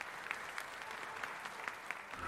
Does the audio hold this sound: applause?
yes